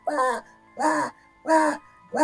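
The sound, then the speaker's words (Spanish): A voice imitates intermittent screams: four short, wailing cries in a steady rhythm, each about half a second long with brief gaps between, moderately loud. “Y empezamos a buscar de dónde venían los gritos, porque los gritos, ¿cachai? Eran cada intermitente.”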